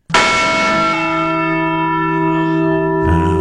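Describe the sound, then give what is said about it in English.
A single loud strike of the Liberty Bell with a mallet, with a sharp attack, then a long ringing sustain of layered tones, followed by a second strike near the end. No voices. “sweet knell of the Liberty Bell.”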